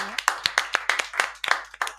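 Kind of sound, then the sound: crowd, applause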